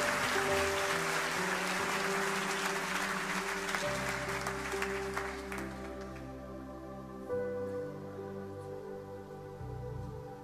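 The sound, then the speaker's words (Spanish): A church audience bursts into loud, dense applause for the people who gave their lives to the Lord, over sustained organ or keyboard chords, the clapping thinning out after about six seconds while the music continues underneath. “¿Cuántos pueden dar un fuerte aplauso para las personas que entregaron la vida al Señor?”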